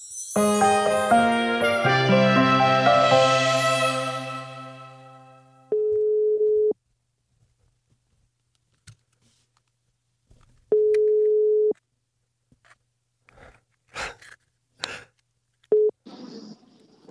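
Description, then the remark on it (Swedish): A telephone ringback tone sounds twice as a call is placed, each a steady, clear beep about a second long separated by several seconds of silence, following a brief melodic chime. “ja, då, då ringer vi då.”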